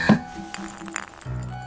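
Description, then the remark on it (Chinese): A glass cup is knocked out of someone's hand when a man rushing for an elevator bumps into them in an office building. It knocks and clinks sharply, with a bright initial strike, a few lighter rattling taps and a lingering ringing tone, then a low thud. The cup cracks but does not shatter. “他好像撞到人了，这还不是重点，重点在于好像他还撞掉了他手里的玻璃杯。”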